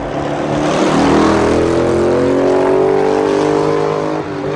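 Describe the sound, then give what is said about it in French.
Steady, loud traffic roar with engine tones rising and sweeping as cars rush past at about 80 km/h on an urban motorway viaduct along the old port of a medieval city, a continuous wash of road noise with no voices. “La première façade de la ville sur le port qui n'est plus perçue qu'en voiture et à 80 km à l'heure.”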